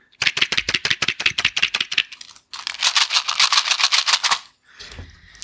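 Castanets held up to a microphone, clacking in sharp, bright rapid clicks, first an uneven rattling run, then after a brief pause a denser, faster roll, with no voices.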